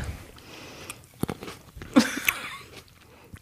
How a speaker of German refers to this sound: Magst du auch ins Mikrofon was schmatzen? Ja. Mhm. Immer Traube.